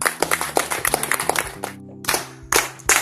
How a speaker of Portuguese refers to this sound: Uma salva de palmas, certo?